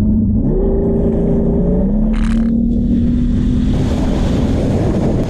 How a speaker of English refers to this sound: this is a quick tip for getting onto plane fast. I'm going to put the throttle forward and watch that wake slowly move towards me in the driving seat. Three, two, one, let's rock.